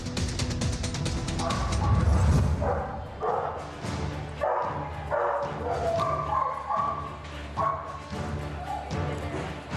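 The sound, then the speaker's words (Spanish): Several guide dogs, Homero, Odessa, Kitty and Orión, trained at a guide dog school in Mexico for blind and low-vision people, bark and yip in quick, overlapping bursts for the whole stretch, fairly loud, with a low rumble and faint voices in the background. “Y cambiando de tema, estos perros guía corren el riesgo de quedarse sin hogar.”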